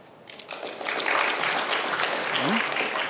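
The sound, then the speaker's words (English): A crowd at the Legal Tech conference claps in answer to a show-of-applause question asking which attendees are vendors, starting quickly and swelling into a steady, dense wash of applause that holds for a few seconds, with faint voices murmuring underneath. “How many folks here, by applause, are vendors?”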